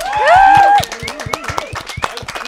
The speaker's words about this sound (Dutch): en nog een keer klappen, voilà.